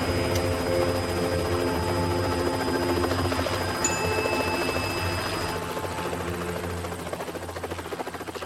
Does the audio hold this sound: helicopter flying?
yes